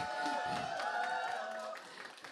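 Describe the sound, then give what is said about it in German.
An audience applauds two contestants after an arm-wrestling challenge, in a dense, steady wash of clapping mixed with crowd cheering, holding for about two seconds before thinning slightly at the end. “So, ein Applaus für euch beide.”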